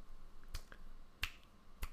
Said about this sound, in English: Uh, you know, that's that's something you're doing with your fingers. like snapping. Yes, yeah, snapping.